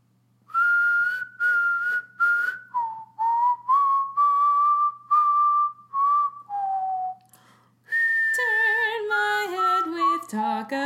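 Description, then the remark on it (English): A person whistles a tune from a musical, clear and fairly loud, in short sustained phrases with brief pauses, ending in a wavering, trilling run of notes. No talking. “Uh, okay, I'm gonna whistle a tune, and you have to guess it.”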